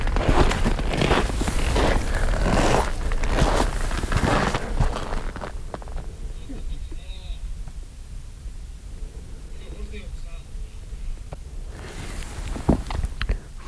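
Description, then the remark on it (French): Crunching footsteps of a person approaching a yurt in very cold weather, in a steady rhythm for several seconds, then a pause into quiet open-air ambience with faint calls, before a few more rustling steps near the end. “J'approche de la yourte.”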